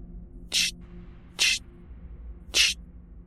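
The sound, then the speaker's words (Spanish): Three short, sharp hissing "psst" bursts, fairly loud, spaced irregularly over a quiet low hum with no talking, heard around 3:20 a.m. just after the rain had stopped. “Escuché el ceseo muy desconcertado”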